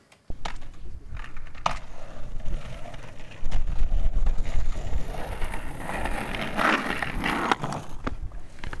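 A skateboard rolls over self-built ramps inside an ice rink in Liljendal with a steady, gritty rumble and occasional sharp clacks, growing louder midway and then easing off. No one speaks.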